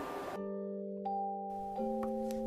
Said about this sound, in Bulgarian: За мен това, което е символа на коледа и дава цялото очарование, ето тази стъклена камбанка, която има един прекрасен звук и това за мен е символа и най-любима играчка.